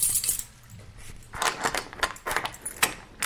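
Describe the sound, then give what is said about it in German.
Metallic keys jangle and rattle in a lock, a quick cluster of bright clinks and scrapes with a few sharper clicks, as three goblin guards unlock a cell door; no one speaks. “Drei Goblins jeweils die zu der rechten eurer Zelle drehen sich in Richtung eurer Tür und schließen diese auf.”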